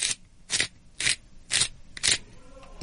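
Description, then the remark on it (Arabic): A black pepper grinder being turned, giving five crunchy, gritty grinding bursts in a steady rhythm about half a second apart, bright and scratchy, with no voices. “صوتنا لليوم هو مطحنة الفلفل الأسود تحديدا”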